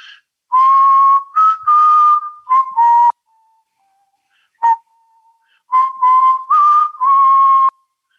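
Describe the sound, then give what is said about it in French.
A person whistles a melody from a musical, a bright, clear tune of sustained notes in two phrases, with a short pause and a brief stray note between them. No one speaks. “Alors la mélodie de caractéristique de cette euh, comédie musicale est vachement connue,”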